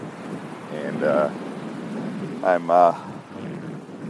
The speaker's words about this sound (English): so if you hear a little wind, if you hear uh, the waves in the background, it's because I'm walking the beach.